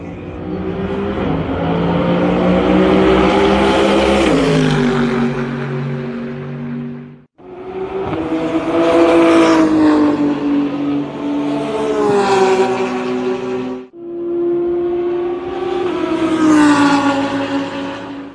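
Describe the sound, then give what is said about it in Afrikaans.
Loud GT3 race car engines, among them Mercedes-AMG GT3 and Porsche 911 GT3 R cars, roar and rev at the Kyalami 9 Hour race in three long sustained bursts, their pitch rising and dropping as they accelerate and shift, with brief breaks between. No one speaks. “Ons praat van 'n Mercedes AMG GT3, Porsche 911 GT3 R's en dan die klank. Jy moet net hierna luister.”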